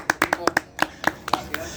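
A small, brief round of applause for the video engineer: about ten sharp claps in an uneven rhythm over under two seconds, growing a little softer toward the end.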